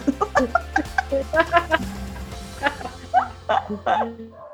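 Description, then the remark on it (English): A small dog barks in quick, sharp yaps, a rapid flurry of short barks with brief pauses between, clear over a faint low background hum. “oh my god, my my dog started barking.”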